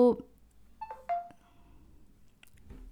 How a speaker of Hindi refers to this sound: फिर मेरे फ़ोन भी uh, मैंने वाइब्रेशन में करना मैं भूल गई थी